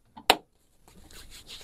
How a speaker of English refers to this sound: That's the sound of our sh- hand shaking. Oh yeah, let's do it again so the listeners can know how to do it.